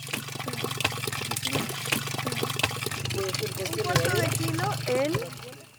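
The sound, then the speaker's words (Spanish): Half a gallon of thick molasses is sloshed and stirred into a 20-liter bucket of water, a continuous wet churning over a steady low hum, with faint voices murmuring briefly near the end. “Podemos diluir el medio galón de, melaza y allí mismo vamos a aplicar la levadura y lo vamos a tapar.”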